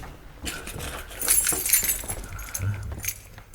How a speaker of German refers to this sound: würden Sie Dr. Chandler einmal Ihr Schlüsselbund zeigen?